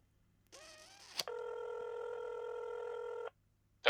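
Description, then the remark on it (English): A short warbling tone and a click give way to a single long, steady electronic ring, as if heard down a phone line while waiting for an answer, with no talking. “I mean, come on, just answer the phone.”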